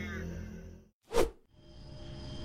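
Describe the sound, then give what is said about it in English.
A single quick whoosh of an arrow thrown by hand, without a bow, cutting through the air, a short, fairly loud swish that rises and fades within a fraction of a second, framed by a low background hum. “I know you don't have a bow, but maybe if you just throw the arrows, they'll do something.”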